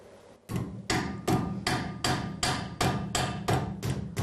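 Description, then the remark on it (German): Steady, regular hammer blows ring out on sheet metal shaped over an iron stake in a workshop, bending the sheet around the iron into a cup shape. About nine sharp strikes at an even pace, each bright and ringing with a short decay, loud. “Geschicklichkeit, Kraft und Geduld sind gefragt, bis sich das Blech um das Eisen biegt und die gewünschte Becherform entsteht.”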